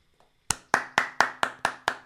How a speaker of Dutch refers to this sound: applaus. Applaus. Ja. Applaus.